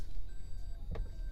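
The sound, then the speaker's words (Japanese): A car's reversing warning beeps in thin, steady tones over a low engine rumble as the car is put in gear and backed up on arriving home, with a brief soft knock partway through. No one speaks. “バックオーライ”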